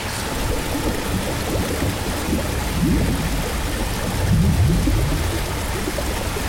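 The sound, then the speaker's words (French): A turbulent river torrent, swollen by bad early-winter weather, rushes in a steady, dense, loud roar with no pauses and faint low murmurs rising briefly within the churning water. “Le talus fut enfin atteint, et dans un dernier effort, le groupe parvint à déséquilibrer l'animal et le précipiter dans les flots tumultueux de la rivière.”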